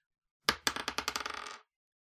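A twenty-sided die rolls on a table: a sharp first clack, then a quick run of bright rattling bounces that speed up and fade out in about a second, with no voices.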